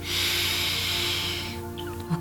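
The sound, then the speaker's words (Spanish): A long, airy breath drawn through the nose, steady for about a second and a half, then fading, with a soft sustained drone humming underneath. “Oxigenas tu cerebro, exhalas por la nariz.”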